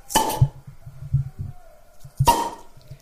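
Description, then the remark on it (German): Two bright glass clinks ring out about two seconds apart in a toast, fairly loud, each with a brief shimmering tail, over low murmuring and background rustle. “Prost.”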